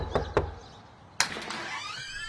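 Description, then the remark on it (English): Two quick, solid knocks on the front door of a home on a quiet suburban road a few miles outside Birmingham city centre, a short pause, then a sharper thud followed by a drawn-out creaking sound, moderately loud with no voices. “He knocked on the door”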